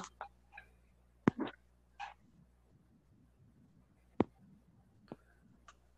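household object, typing on a keyboard

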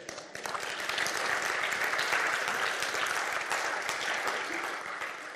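crowd, audience applauding

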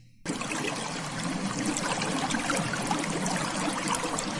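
sound effect, water trickling and pouring

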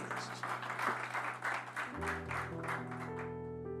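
crowd, audience applause

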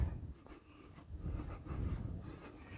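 nature, wind blowing

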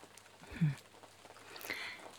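nature, rain falling

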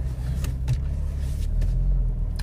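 vehicle, car accelerating

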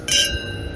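household object, glasses clinking

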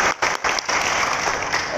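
crowd, audience applause

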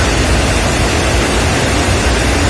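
nature, heavy downpour of rain

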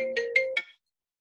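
signal or alarm, mobile phone ringtone ringing

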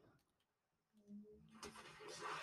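vehicle, boat engine starting

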